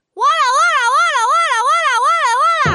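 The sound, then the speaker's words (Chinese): A child's voice loudly imitates a police siren, chanting syllables in a rapidly wavering pitch that rises and falls about six times in one sustained breath before cutting off. “我这是警车的叫声。”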